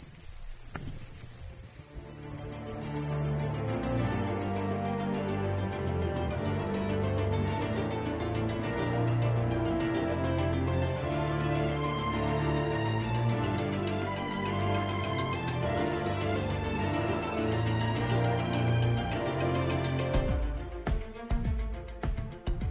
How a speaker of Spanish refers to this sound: Este era el ambiente durante la noche. Escuchad. La chicharra, ahí.